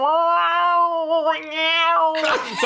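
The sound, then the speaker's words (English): A man down on one knee lets out a long, wavering, nasal wail imitating a moose call, held for about two seconds before breaking into a loud, raspy, breathy finish. “And I said, I meant call the quarter, you meathead, not call a moose.”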